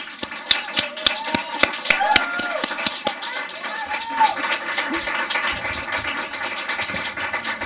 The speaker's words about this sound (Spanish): pido un aplauso muy fuerte y adiante.